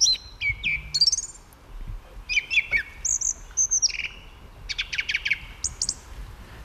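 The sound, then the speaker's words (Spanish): A song thrush (Turdus philomelos) sings alone, delivering a series of clear, loud, varied phrases with short repeated notes against a near-silent forest background. “El primer indicio potente es el canto del zorzal común contra el silencio del bosque, la voz potente del zorzal.”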